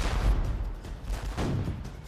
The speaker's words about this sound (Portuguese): Com os disparos dos nossos canhões, os barcos dos nativos começaram a dispersar.